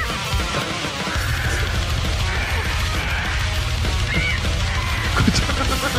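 Harsh, raspy squawks from a parrot featured in a metal band's recording cut through a loud, dense wall of distorted metal music with pounding drums, the bird's screeches rising repeatedly above the thick, continuous band sound.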